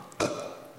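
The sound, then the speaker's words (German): A single short burp from a man: a quick throaty burst that fades over a fraction of a second, with no talking. “Ich bin schockierend für dich, aber das ist ein Bäuerchen.”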